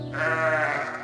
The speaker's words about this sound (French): Et là, c'est un adorable mouton.